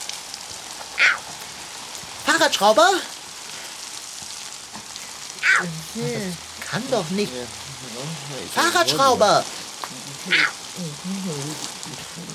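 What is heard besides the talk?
water spraying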